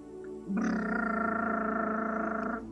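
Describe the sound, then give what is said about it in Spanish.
A person imitates a truck engine with their voice, the typical sound of a child playing at being a truck: a sustained buzzing, rattling rumble lasting about two seconds, steady, then cutting off abruptly. “El siguiente sería típico sonido de niño haciendo el camión, ¿no?”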